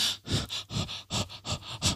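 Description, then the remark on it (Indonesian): Heavy, rapid panting: about seven quick, breathy huffs in two seconds, steady and rhythmic like someone badly out of breath, with no talking. “ngos-ngosan”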